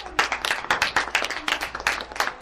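A round of applause from a small group for a jazz flute player: dense, crackling hand claps overlapping in a steady, uneven patter, bright and fairly loud, with no voices on top.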